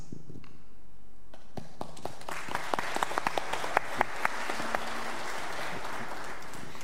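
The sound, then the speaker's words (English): An audience gives another round of applause to a discipleship team as they go back to their seats, sharp scattered claps building into a steady patter of many hands, with a few louder individual claps standing out before the sound thins toward the end. “Would you give them another round of applause as they go back to their seats?”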